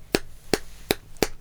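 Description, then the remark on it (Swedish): Four crisp, clicky plucks from a thin guitar plectrum flapping against strings, evenly spaced in a steady rhythm, fairly loud with no voices. “det blir lite knäppigare sound med tunnare plektrum liksom”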